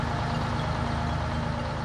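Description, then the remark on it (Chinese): An old, battered small diesel pickup truck, heard from far away at about 10 pm near Happy Valley-Goose Bay in northeastern Canada, rumbles steadily: a continuous low, throbbing drone with a constant hum layered over a broad roar and no voices. “呃，远处啊，就听见那个柴油的那个一个声音”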